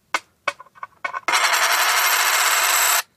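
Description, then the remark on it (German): A coin rolls across a small hand mirror in a few separate taps, then speeds into a loud, continuous metallic rattle. It imitates a wood warbler's accelerating trill and cuts off abruptly. “Also ich benutze dafür einen kleinen Handspiegel.”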